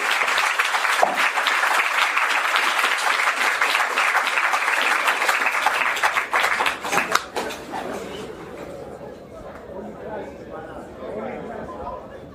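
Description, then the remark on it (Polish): Sustained audience applause for the author of a book, a dense crackle of many hands clapping for about seven seconds, then fading out into low murmuring and quiet chatter from the crowd. “To niech drugie półtorej godziny teraz popisuje tą rzeczywiście wspaniałą, wstrząsającą książkę i, i poproszę dla niego brawa wyszło.”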